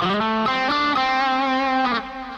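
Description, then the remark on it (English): A distorted electric guitar plays an airplane slide, sliding up into a single sustained note in the style of a guitarist. The note rings loudly and steadily for about two seconds before dropping in volume near the end. “and you can do airplane slides going this way.”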